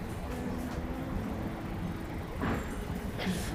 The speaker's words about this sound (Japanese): 今日ちょっと車うるさいとこに入っちゃいますが今日2023年の3月10日金曜日の結構晴れてる日でねでああバイクもねここもねちょっと車通っちゃうんですよね